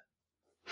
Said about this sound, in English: Bless you.